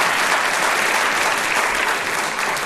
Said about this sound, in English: Um, all be very robust with that applause. Yeah. That's a good thing.